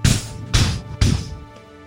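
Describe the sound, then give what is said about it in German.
A voice mimics three loud, heavy knocks on a heavy wooden door, evenly spaced about half a second apart, each a sharp, booming thud that decays briefly, with no talking. “Das klingt erstaunlich klopfig übrigens, was ja, du da mit deinem Mund machst.”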